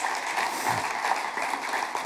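A crowd claps steadily, a dense, even patter of many hands at moderate loudness, sustained throughout without pause and with no voices on top.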